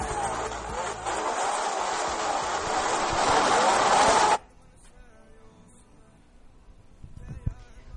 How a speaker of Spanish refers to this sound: ¿Cuántas veces no hemos escuchado este sonido? De autos, de motos, acelerando, pero a lo que más no puedan, para poder arrancar y empezar a pistear por las calles, comenzar con las picadas.